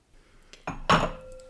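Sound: glasses clinking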